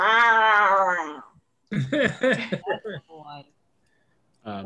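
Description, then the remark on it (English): A person imitates a cat's meow with one long, drawn-out mewing sound, followed by a few shorter voiced noises and a brief pause. “I made kitty noises.”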